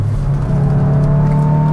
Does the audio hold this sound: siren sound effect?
no